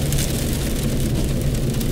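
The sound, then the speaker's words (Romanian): Steady rain falls throughout, a dense continuous hiss with fine pattering over a low, rumbling background. It stays at an even, fairly loud level the whole time, and no one speaks. “Plouă. Nu are înregistrarea purici. Plouă.”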